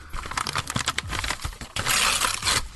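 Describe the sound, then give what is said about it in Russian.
Crackly crinkling of paper gives way to a loud, sustained ripping as wrapping paper is torn off a heavy wrapped box in long pulls, with no voices. “Так, окей, нахрен бумагу, рвем, выкидываем.”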